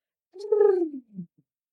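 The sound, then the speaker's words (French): A single lip trill glides steadily downward in pitch like a falling siren for about half a second, then ends in a short low sputter, with no talking. It is done as a quick vocal cool-down after leaving the stage. “Et donc, en fait, quand je sors de scène, mais ça dure vraiment euh, deux minutes, hein, c'est très très rapide, et ben en fait, je fais l'inverse, c'est-à-dire que je fais comme une sirène.”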